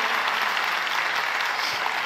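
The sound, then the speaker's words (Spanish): An audience applauds steadily, a dense, even wash of many hands clapping at once, loud and sustained without a break and with no voices standing out. “Y si van a aplaudir, aplauda con todas sus fuerzas.”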